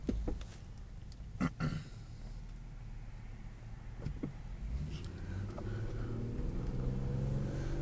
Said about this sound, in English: So then you heard my my car wind up.